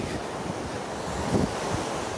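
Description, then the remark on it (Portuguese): Ocean waves wash onto a beach in Florianópolis in a steady, rushing roar that swells briefly near the middle, with wind buffeting the microphone and no voices. “Hoje a gente tem café com água salgada.”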